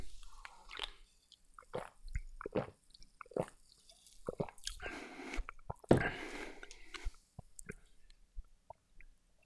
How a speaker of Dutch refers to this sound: ik ben benieuwd. Ik ga gewoon eens een slok nemen.